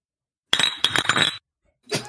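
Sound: beer bottles clinking together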